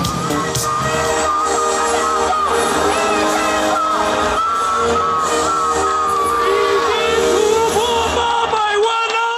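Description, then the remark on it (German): A large crowd of supporters cheers and shouts continuously outside the campaign headquarters of President Tsai Ing-wen in Taiwan on presidential election night, a Saturday. Whoops and raised voices rise over a dense, loud roar for the whole stretch, with the amplified voices of moderators announcing vote counts carrying above it. “Es sind schon über acht Millionen Stimmen, verkündeten die Moderatoren vor der Wahlkampfzentrale von Präsidentin Tsai Ing-wen vor jubelnden Unterstützern am Samstag, am Wahlabend.”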